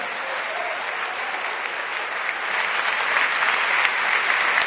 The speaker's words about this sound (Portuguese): Se você quer amar a Deus, glorifique agora o Senhor com suas palmas, com seu coração.